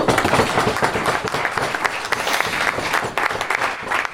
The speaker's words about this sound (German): Applaus